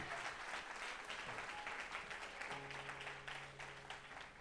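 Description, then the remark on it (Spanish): Loud, sustained applause to the Lord from a church audience, a dense crackle of many hands clapping steadily for several seconds, with a low sustained tone humming underneath. “En el nombre de Jesús y el que lo crea diga, dale ese aplauso fuerte al Señor ahora sí.”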